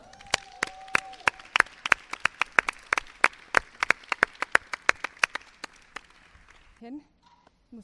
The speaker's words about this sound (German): Macht einen großen Applaus für, sie, für die Musikerin an diesem Abend.